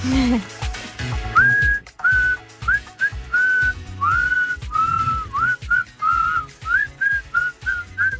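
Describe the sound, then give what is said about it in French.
A person whistles a melodic tune, clear, with bright sustained notes and little pitch slides, over a backing of music with steady beats. “Depuis hier, j'arrête pas de siffler ça.”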